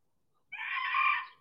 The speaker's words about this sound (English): Chicken, chicken, yeah. And rooster, rooster. I was, I was, uh, I was. Uh, finding the bird rooster.